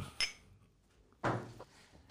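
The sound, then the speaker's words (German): Glasses clink together in a toast on the Kiez in Hamburg, a bright short tap followed about a second later by a louder, fuller knock with a brief ringing tail, otherwise quiet. “Und erstmal Prost.”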